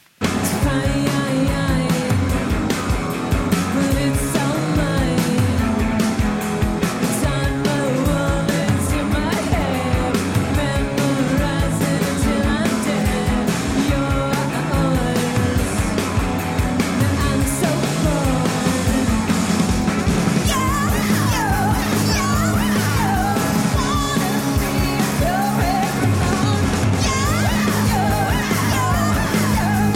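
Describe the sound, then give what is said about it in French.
A loud, driving 1996 punk rock song by a band plays throughout, with dense distorted guitars, pounding drums and shouted, yelling vocals at a steady, relentless volume. “ça c'est le groupe avec un titre de 1996.”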